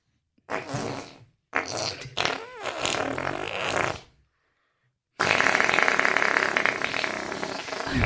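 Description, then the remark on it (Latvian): Loud fart-like noises made by pressing a leg: a short sputter, a longer wobbling blurt, then after a brief silence a sustained rough, rasping burst. “… tagad, tagad ķipa, rāda, kā viņa tev ar kāju uztaisīja”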